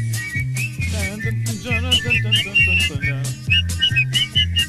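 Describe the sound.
A man whistles his favorite song, a lively tune, over a rhythmic backing track with a steady bass line and percussion, the whistled melody bright throughout.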